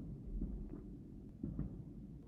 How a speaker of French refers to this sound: Je crois qu'il y a un feu d'artifice. Parce qu'à côté, j'habite à côté d'un hippodrome et des fois il y a des feux d'artifice. Donc si vous les entendez ou les avions, c'est normal, on va faire abstraction, ok, merci.